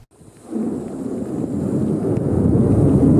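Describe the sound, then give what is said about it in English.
A distant roar as a Skybow 2 anti-ballistic missile is launched from the Jiupeng military base in Pingdong: after a brief quiet moment, a deep, rumbling blast swells up and holds steady, slowly growing louder. No voices are heard. “A roar echoes in the distance as a Skybow 2 anti ballistic missile is launched from the Jiupeng military base in Pingdong.”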